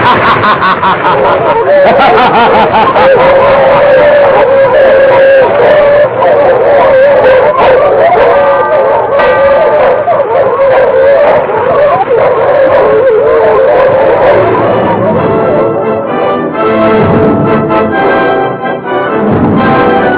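A pack of dogs bark and howl loudly and continuously for about twenty seconds, their overlapping yelps and drawn-out howls forming a dense, chaotic din.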